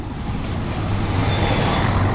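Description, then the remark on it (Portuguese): Cars pass along a road beside the Rio Tejo, between Terreiro do Paço and Cais do Sodré, heard while walking, as a steady, moderately loud rumble of traffic with a low engine hum underneath and water lapping. The broad wash of noise holds even throughout, and no one speaks. “Temos os carros a passar, o mar aqui a bater.”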